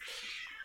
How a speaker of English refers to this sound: oh that's my cat.